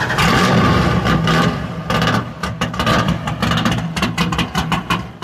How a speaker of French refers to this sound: C'est une Dodge Charger de 1969, le même modèle que dans Bullet, film sorti en 1968 et qui contient une des scènes de poursuite en bagnole les plus mythiques de tous les temps.